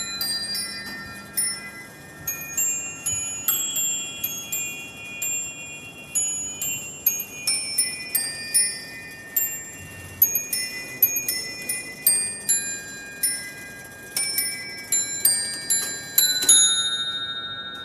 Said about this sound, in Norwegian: Mens vi står og beundrer Martin Luthers signerte bibeloversettelse fra 1542, begynner den astronomiske klokken fra Strasbourg å slå. Klokken er laget i 1589, er omtrent en meter høy og spiller en av Luthers salmer.